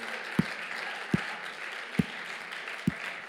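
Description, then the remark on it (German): An audience at a church service applauds the cake team and coffee team steadily in a dense wash of clapping, with a few sharper, louder claps punctuating it every second or so. No one speaks. “Lass uns mal den Kuchenteam einen fetten Applaus geben.”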